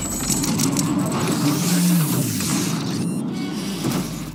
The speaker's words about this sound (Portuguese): Todos estavam prestando atenção nas duas, até que um grande rangido tomou o som do ambiente.